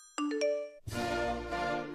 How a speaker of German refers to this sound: Dein Telefon bimmelt die ganze Zeit.